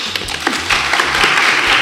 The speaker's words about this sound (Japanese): あの今回のゲストはこちらです。はい、拍手。